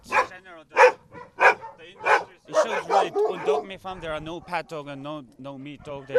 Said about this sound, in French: Trois ou quatre chiens sont parqués dans chacune des cages au gris rouillé.